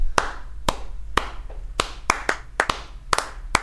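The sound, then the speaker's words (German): Sharp hand claps repeat a syncopated clave pattern, three claps then two, cycling twice. The claps are crisp and fairly loud, with no talking over them. “wo ich immer stolz war, wenn ich es geschafft habe, dass äh, jemand eine ne, ähm, Klave klatschen kann. Mhm. Also immer die 3-2-Klave.”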